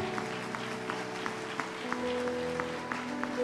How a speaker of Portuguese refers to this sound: Aplaude a Deus, aplaude.